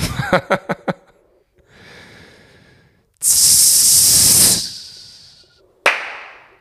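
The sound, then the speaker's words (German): A voice imitates a rocket launch: a few quick clicks, a low rumbling build-up, then a loud, sustained whooshing hiss that fades, followed by a short sharp burst. “Soll ich nochmal eine Rakete machen?”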